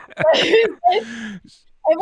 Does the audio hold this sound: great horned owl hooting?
no